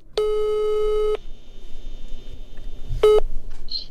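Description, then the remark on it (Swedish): A telephone ringback tone heard while Sportbladet places a call to the sports director in Oskarshamn: one steady electronic beep lasting about a second, a pause, then the start of a second beep. Clear, no talking. “Vi ringer till honom.”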